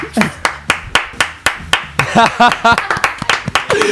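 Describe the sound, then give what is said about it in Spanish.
Steady, rhythmic hand clapping with sharp claps at an even pace, about four per second, while voices and laughter rise underneath in the second half. “Si se alarga el aplauso, después puede venir la risa.”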